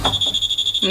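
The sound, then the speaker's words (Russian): A medical device sounds a shrill, high-pitched electronic tone that pulses rapidly and steadily for about a second as it finishes its work, clear over faint background noise. “А так он заканчивает работу.”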